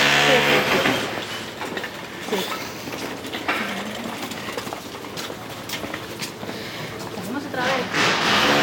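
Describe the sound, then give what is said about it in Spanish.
A tram rolls past, a steady rumbling clatter of wheels on rails with a brief tonal whine at the start, while people talk indistinctly beneath the noise. “Salimos otra vez al tranvía.”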